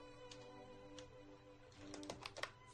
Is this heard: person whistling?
no